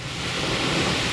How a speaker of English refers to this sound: And what you're hearing is the Pacific Ocean, the waves crashing against some rocks.